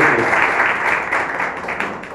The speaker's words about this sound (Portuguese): E você que pode, aplauda o Senhor Jesus. Glória a Deus.